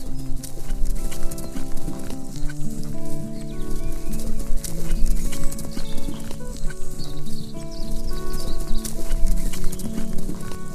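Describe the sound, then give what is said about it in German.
Steady clip-clop of a white horse's hooves at a relaxed riding pace through a forest on a sunny day, fairly loud, with a soft outdoor ambience and occasional faint birds in the background. No one speaks. “Du könntest ewig so weiter reiten.”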